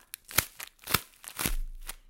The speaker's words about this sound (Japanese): せっかくだからこのうまい棒を潰す音を使いたいなと思ってただこれ2本ね潰しちゃうともうなくなってしまうのでここで収録してもいいですかいきます。